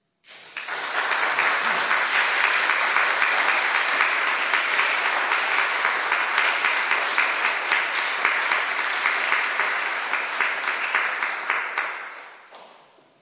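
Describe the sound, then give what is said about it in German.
An audience at a church service applauds the musicians steadily for about twelve seconds, a dense, even wash of many hands clapping at once that holds level before fading out at the end, with no talking over it. “ihr habt die Musik gemacht und ihr habt einen wirklich großen Applaus verdient.”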